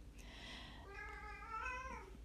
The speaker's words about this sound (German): Ja, ich weiß nicht, ob ihr meine Katze hört, die äh, ist ein bisschen, bisschen nervös zurzeit. Ähm, wir glauben, wir werden bald kleine Katzen bekommen.